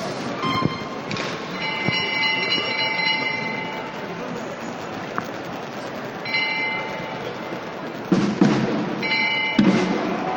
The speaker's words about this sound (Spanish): Y comienza el toque de la Legión. Vamos a ver si podemos escuchar.